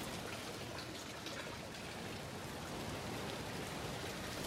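Steady, dense splashing of water from an outdoor fountain in the city of Hasselt, a continuous hissing patter that stays even throughout, with no voices.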